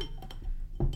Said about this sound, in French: Euh, alors on ouvre la bière.